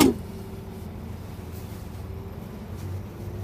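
A big truck engine drones steadily at close range, a deep continuous rumble with a faint humming tone on top, holding even for a few seconds with no voices.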